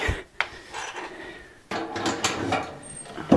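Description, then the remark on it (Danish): Wooden logs clunk and knock against metal as they're loaded into a wood-burning stove, with scraping and shuffling between a few sharp impacts, fairly loud, no talking. “Så kan jeg fylde lidt i brændeovnen her, inden jeg smutter ud af døren.”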